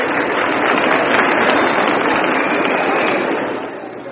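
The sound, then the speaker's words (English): A large baseball crowd applauding pitcher Hank Borowy as he comes up for his first at bat, a dense crackling wash of many hands clapping that holds strong for several seconds before easing off slightly at the end. No one speaks over it. “Here's a round of applause for Hank Borowy.”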